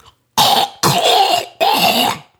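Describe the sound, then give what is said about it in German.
Three loud, rasping bursts of someone hawking and clearing phlegm from deep in the throat to give a sample for a corona test, as the test instructions say, each lasting about a third of a second with short pauses between, harsh. “Und da hieß es einfach, man muss es aus den Tiefen seines Rachens holen.”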